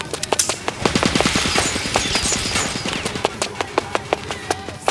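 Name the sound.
machine gun burst firing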